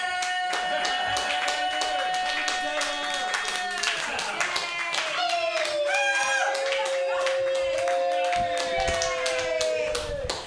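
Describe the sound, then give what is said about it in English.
A small crowd at Mutiny Radio claps rapidly and enthusiastically for about ten seconds, the dense applause steady, with excited whoops and cheering voices rising over it, as the performer of the night's last set runs up. “So uh, clap wildly because I can't do any music while I run up to the thingy.”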